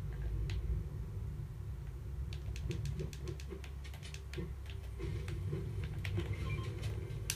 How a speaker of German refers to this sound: Ey, ich hasse Blitz, die triggern.